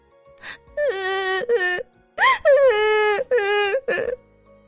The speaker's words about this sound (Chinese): 大卫越想越伤心，眼泪就吧嗒吧嗒的落了下来。